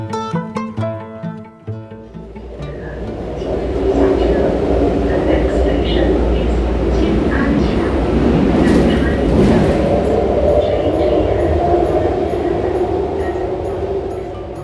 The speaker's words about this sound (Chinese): 坐地铁去承恩寺的这段时间呢